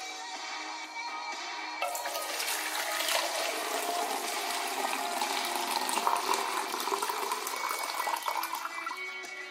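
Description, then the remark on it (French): Water being poured from one container into another, as in John Cage's 1952 piece Water Music: a soft trickle at first, then a fuller, steady splashing rush that continues without a break. No one speaks. “Comme dans la pièce Water Music de 1952, où on entend par exemple de l'eau versée d'un récipient à un autre et des chansons diffusées par une petite radio.”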